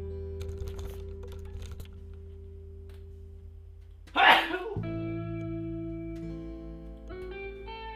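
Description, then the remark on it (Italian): A single sharp sneeze bursts out midway, loud against a quiet background of light tapping and a steady electronic hum. “io devo starnutire”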